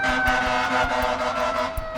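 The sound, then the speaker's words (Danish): A fire truck's air horn blares loudly and steadily for the full two seconds during an emergency run, honked at a car that had not heard the siren, a continuous brassy honk with strong harmonics and faint rhythmic rumbling underneath. “Øj, kunne du høre det høje dyt? Der var vist en bil, der ikke havde hørt udrykningen, så brandbilen måtte dytte endnu højere.”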